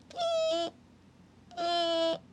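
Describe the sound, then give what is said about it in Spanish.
A voice imitates a door creaking during an earthquake with two drawn-out, squeaky, nasal tones, each about half a second long, separated by a brief pause. The sound is fairly loud. “Y yo estaba en mi cama, ya no aguantaba el sueño y me recuerdo que me estaba quedando dormida y en eso empezó a temblar y mi puerta hacía como...”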